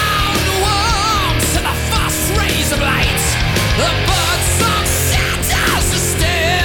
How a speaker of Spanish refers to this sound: Ese grito me gustó. es un animal cantando igual,